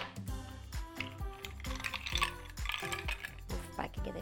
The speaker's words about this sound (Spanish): Ya que está un poquito machacada nuestra fresa, vamos a colocar nuestros hielos